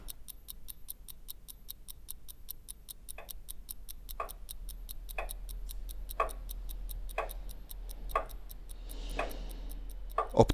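A mechanical clock ticks steadily at about one tick per second, fairly quiet, with a faint, quicker ticking running underneath. No one speaks.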